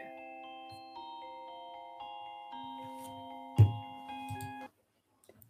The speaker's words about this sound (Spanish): mientras que en el interior, junto a la cuna, suena la música de una caja una que siempre estuvo ahí.